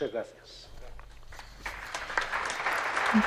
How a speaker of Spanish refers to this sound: Pues con otro aplauso también acogen estas palabras del nuncio apostólico de su santidad en España, Monseñor Bernardito Auza, que ha dirigido a Monseñor Francisco Conesa, quien ya enseguida va a tomar posesión de la diócesis de Solsona.